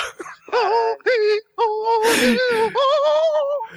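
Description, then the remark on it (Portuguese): A voice imitates a woman's drawn-out, sing-song moaning: several sustained, wavering wails with a breathy gasp in the middle, loud, with no other speech. “Será que a … é geme como ela canta? ela geme, ela não canta.”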